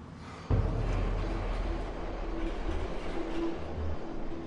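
A subway train on the Moscow metro rumbles loudly, kicking in abruptly after a brief quiet moment and continuing as a steady, heavy roar with a faint whining hum on top.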